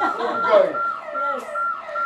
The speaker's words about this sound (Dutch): Nou jongens, het alarm gaat hier af.